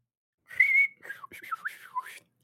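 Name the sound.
human whistling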